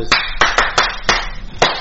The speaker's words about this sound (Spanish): Cuando aplaudamos así ya no hablemos, hasta yo, ¿eh? hasta yo.